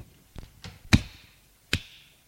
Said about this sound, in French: Il la gifle.